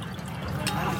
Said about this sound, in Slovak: No tak akože, vieš, držíš flašku, mne uleješ vínko a ja seba dám, obídeš.